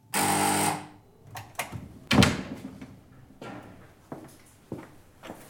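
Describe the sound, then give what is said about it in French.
A loud, harsh doorbell buzzes once for under a second, then a door clatters open with a sharp bang and scattered knocks and shuffling. “Oh, je ne m'habituerai jamais à cette sonnette.”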